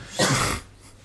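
A single sharp sneeze bursts out, loud and breathy for a fraction of a second before trailing off into quiet background noise.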